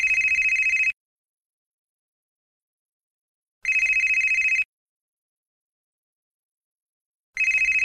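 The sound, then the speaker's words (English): A telephone rings in three steady bursts, each about a second long with a bright, buzzy high tone, separated by long silent gaps; the third ring cuts off early. “He answered halfway through the third ring.”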